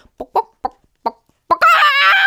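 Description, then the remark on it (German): A person imitates a chicken: four short clucks in a halting rhythm, then a loud, drawn-out squawking cackle. “Vielleicht gackert ja jemand zwischendurch wie ein Huhn, finde ich auch witzig.”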